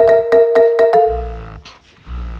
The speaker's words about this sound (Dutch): Nee, dit is niet het geluid van een vibrator. Dit is het geluid van een kolfapparaat.